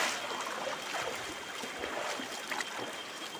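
A swollen river rushes past, a dense, steady roar of churning water with no breaks, holding an even loudness throughout and no voices.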